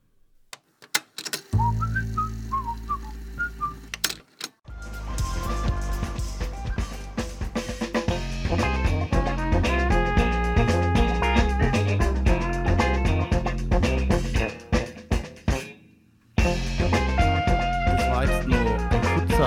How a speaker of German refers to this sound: Ausschnitt vom Song … von der …er Band …. Es klingt wie ein DJ-Setup, aber es ist echt eine Band.